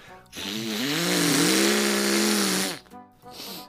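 A chainsaw roars loudly for about two and a half seconds, its engine pitch wavering and rising, then cuts off into a few brief, quieter rasping bursts.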